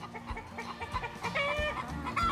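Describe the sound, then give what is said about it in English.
Hens clucking as they come out and wander in a wide-open spot, a busy overlapping chatter of short throaty clucks with a few higher drawn-out calls, steady and fairly loud throughout, no voices present. “The hens like to come out and they like to wander as far as they can.”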